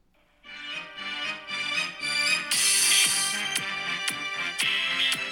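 A deepfake AI-generated voice, played from a phone, sings a bouncy children's song over bright, loud pop backing with a steady, punchy beat and sharp cymbal hits, starting after a brief silence and continuing to the end.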